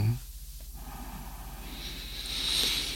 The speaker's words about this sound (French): Je reviens à la respiration, l'air qui va et qui vient par le nez, comme une vague qui va et qui vient sur la plage. Voilà, et petit à petit, je vais amplifier ma respiration,